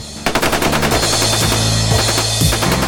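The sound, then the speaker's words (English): Loud automatic machine gun fire erupts after a brief moment and keeps going in a rapid, unbroken stream of shots, harsh, with a low rumble underneath and no voices; two automatic machine guns are fired at an advancing crowd of mutants. “Zeke and Dick, both from nowhere, pull out automatic machine guns and begin laying waste to the crowd of mutants advancing towards them.”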